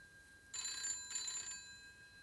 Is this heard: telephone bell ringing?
yes